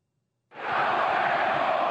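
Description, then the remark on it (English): After a brief silence, a huge crowd of about 80,000 soccer fans at the stadium in Dortmund, Germany, bursts into loud, sustained screaming, a dense roar that holds steady to the end without letting up. “When 80,000 fans scream your name, you better deliver.”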